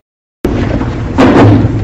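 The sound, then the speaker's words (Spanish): A chair is pulled out, scraping across the floor with a rough, grinding drag that swells louder partway through, with no voices. “Dejen resacar un poquito la silla, por su madre.”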